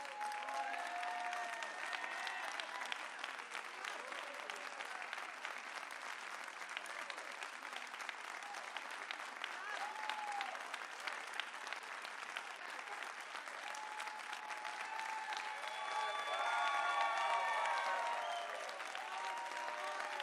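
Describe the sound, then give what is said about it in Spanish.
A church audience applauds steadily for about twenty seconds, honouring the anointing of their pastor, with dense clapping, scattered cheers and voices rising near the end. “¿Cuántos pueden aplaudir la unción? del hombre de Dios que Él escogió para usted en esta casa.”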